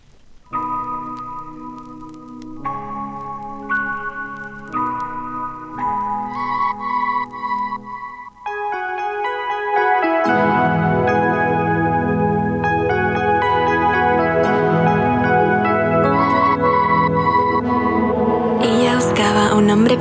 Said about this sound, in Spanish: lo que sí vamos a ir a escuchar es una de tus canciones, …. Vamos a ver el video